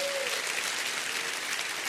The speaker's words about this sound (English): Everybody say, I am approved by God. Clap your hands to that.